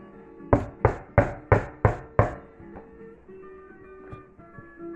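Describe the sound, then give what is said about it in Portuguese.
Six firm knocks on a wooden door in a quick, even rhythm, fairly loud, as a man knocks at the door, followed by quiet room tone with a few faint soft sounds. “Aí ele bateu na porta.”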